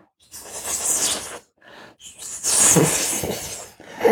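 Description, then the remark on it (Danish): A voice imitates the hiss of a giant snake with a forked tongue, drawing out several breathy, sibilant bursts of varying length with short pauses between them, moderately loud. “Der kunne de se slangens hoved vende og dreje sig, og dens kløftede tunge, det betyder, at den havde to.”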